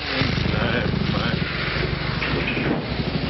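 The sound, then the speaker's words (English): Motorbike engines roar loudly and steadily throughout, a dense, throbbing rumble that never lets up. “Motorbikes. Confounded contraptions.”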